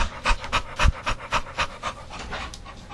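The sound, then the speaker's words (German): A person imitates a dog panting, with quick rhythmic breathy huffs repeating about every quarter second, fairly loud, with no speech. “Als Hund. Die können ja nicht schwitzen, die hecheln, ja.”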